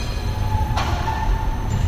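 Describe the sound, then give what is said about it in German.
A tram pulls out of its depot with a steady low rumble and faint tonal whine, broken by one sharp metallic bang of the track switches under the car as the driver pushes them his way, then a softer second knock. No one speaks. “Also das sind jetzt, was ist geknallt, sind die Weichen unterm Wagen die ich jetzt in meine Richtung schiebe.”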